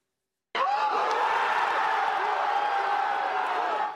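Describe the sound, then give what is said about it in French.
After a brief silence, football fans in a Paris bar watching France play Denmark suddenly erupt into loud cries of relief at the 81st minute, a dense roar of many voices that holds steady until the end. “Des cris de soulagement à la 81e minute.”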